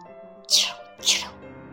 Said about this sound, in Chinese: 茉莉问：“那是什么？”巴蒂嘟囔着：“嗯，是一只田鼠在干活呢。